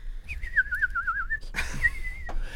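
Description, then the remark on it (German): A person whistles a warbling, trilling bird-like call, a quivering tone fairly loud, then a second sustained whistled note over a brief burst of noise. “oh jetzt oh Gott halt sei Dank kannst fest, du keine Vogelstimmen, ey.”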